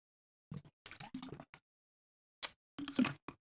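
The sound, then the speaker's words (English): Drinking sounds of water: two short runs of sips and swallowing gulps separated by a pause, fairly quiet, with no talking. “grab some water here.”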